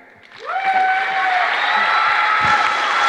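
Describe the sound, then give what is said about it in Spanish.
Loud audience applause for a speaker after her talk swells in after a brief quiet moment and holds steady, with sustained whistles and cheering ringing out above the dense clapping. “Fuerte el aplauso para Majo Arroyo”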